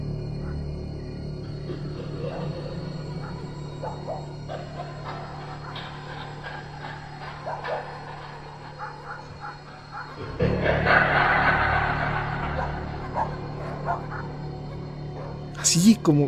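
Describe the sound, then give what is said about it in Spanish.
A dog gives off eerie, drawn-out laughing yelps and whimpers over a low droning background, swelling into a louder, rougher burst of cackling near the end. “Ese maldito perro comenzó a carcajearse.”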